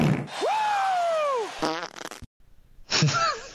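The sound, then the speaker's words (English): A long, loud, drawn-out fart sound effect with a rising then falling pitch, followed by a sputtering burst, a brief silence, and a second shorter squeaky fart. “Are you going to play the drop? Ryan, he's an old fart. You think God never farted?”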